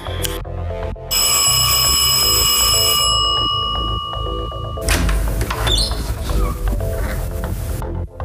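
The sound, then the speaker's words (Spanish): A doorbell at the Kimball house rings loudly and steadily for a few seconds, its bright metallic tone sustained before cutting off, with a busy low background rumble continuing afterward. “Después de 45 minutos de viaje en su Fiat 521 y ya afuera de la casa Kimball, el Webb se dispone a tocar el timbre e interiorizarse de todos los detalles que haya que tener sobre el caso para empezar a investigar.”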